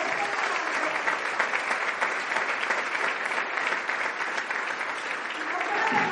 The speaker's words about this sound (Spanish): para que pida un aplauso